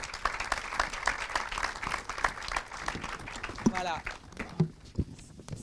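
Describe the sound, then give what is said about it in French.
An audience claps steadily in a dense, crackling burst of applause for Dan Levy, then thins out toward the end as a few voices come through. “Dan Levy, non moins grand, vous pouvez l'applaudir aussi.”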